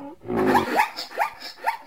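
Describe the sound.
A human voice imitates a zebra's whinny: a rough, drawn-out voiced cry followed by three sharp, evenly spaced yelping barks, fairly loud with no other sounds.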